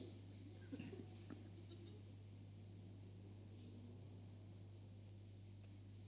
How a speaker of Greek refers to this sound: Και τώρα όντω ακούγεται τζιτζίκι όλη την ώρα